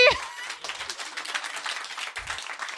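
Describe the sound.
A crowd applauds steadily for a few seconds, a dense, continuous patter of clapping after a brief burst of voice or laughter at the very start.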